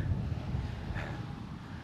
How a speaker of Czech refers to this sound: Tak už jsme nahoře, kde fouká.